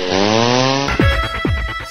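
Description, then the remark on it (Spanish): A chainsaw runs loud, its engine idling steadily before revving up in a series of rhythmic bursts, roughly three sharp throttle pulls in quick succession, with no voices present. “maquinaria y remolques Lano en Ponteareas, tractores, cortacéspedes, motosierras, desbrozadoras, la maquinaria agrícola para tu finca, terreno o jardín.”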